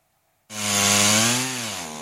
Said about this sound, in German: Für viele ist es das Geräusch dieser Tage. Mit Motorsägen versuchen Feuerwehrleute, umgestürzte Bäume und heruntergefallene Äste zu zerlegen die Straßen sollen schnell wieder frei werden, wie die Autobahn A45 im Siegerland, die zeitweise gesperrt war